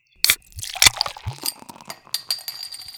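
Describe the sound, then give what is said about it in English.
A cold beer bottle is cracked open: two sharp metallic pops of the cap, a few glassy clinks, then a soft steady fizz hissing in the background. No one speaks. “do you want to get this party started by cracking open a cold one with the boys?”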